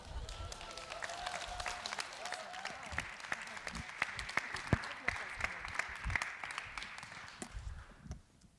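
An audience breaks into warm applause, dense clapping from many hands filling the room at a steady level for several seconds before tapering off at the end.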